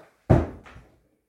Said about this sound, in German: Ja, jetzt habe ich gerade mit der Tür geknallt, aus Versehen.